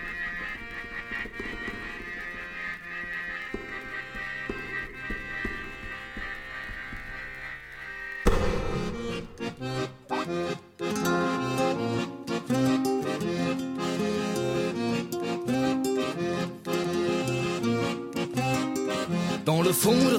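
A music track opens with a sustained, droning intro of held tones, then about eight seconds in a fuller, louder arrangement with rhythmic percussive accents and melody takes over and continues steadily.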